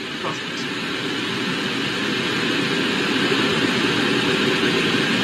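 An Atlas V 541 rocket launches NASA's Mars 2020 Perseverance rover toward Mars, roaring in a deep, continuous rumble, loud and steady throughout, with broad crackling noise over a heavy low-end drone and no voices.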